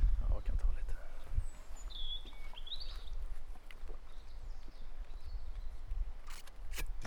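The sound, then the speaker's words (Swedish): Birds chirp and whistle in short, thin phrases in the trees against a steady outdoor hush, fairly soft, with a few clicks and rustles from someone handling things. “kan vi köra lite ASMR i en liten stund här och bara spela in fågelkvitter.”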